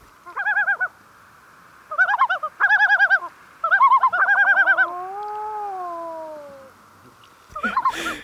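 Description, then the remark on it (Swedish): Red-throated loon calls: several bursts of rapid, nasal cackling notes, then a long, drawn-out wavering wail that slides up and down in pitch, ending with a short final burst. No talking. “Det är som att den är gjord av sammet och så har man satt dit en, en näbb av elfenben på den och ett rött knappöga och så har den det där härliga lätet också som vår eh, kära klippare Frida kommer lägga in nu”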